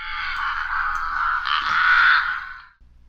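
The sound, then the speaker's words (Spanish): Penitent crows give a single long, harsh, raspy screech that swells louder for a couple of seconds before abruptly cutting off, with no voices alongside. “Cuervos penitentes.”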